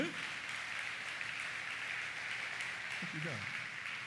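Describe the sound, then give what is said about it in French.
A church audience claps steadily for about four seconds, a dense, even wash of applause with a brief voice breaking through at the start and again near the end. “Quel applaudissement, jeune.”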